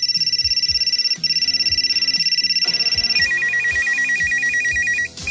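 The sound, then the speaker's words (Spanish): A mobile phone ringtone from the year 2000 plays a bright, electronic melody of sustained and pulsing tones over a steady rhythmic beat, loud, with no talking. “era el sonido de los móviles en el año 2000, el año de nuestra máquina del tiempo de esta semana.”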